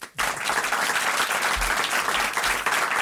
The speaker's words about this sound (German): Das ist schön, Ihr Applaus, toll.